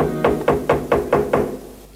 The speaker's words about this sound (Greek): Κάποιος χτυπάει την πόρτα.